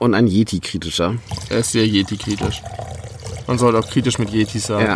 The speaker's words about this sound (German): Also was ihr gerade hört, ist, ist, der Korn, den wir uns jetzt hier gerade nochmal äh, ins Glas reinfüllen für den Rest der Folge. Ich habe hier noch so einen kleinen Mini-Rest. Ich verteile ihn hier nochmal.